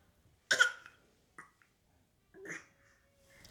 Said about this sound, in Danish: Nej, jeg tror bare, han hostede lige ind i spejlet.